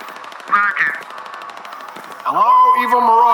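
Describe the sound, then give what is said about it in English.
Rapid, steady bursts of machine-gun fire crackle through the whole clip, a fast even rattle mixed with loud, tonal voices that rise and swell over the shooting. “Nice shot, Sergeant.”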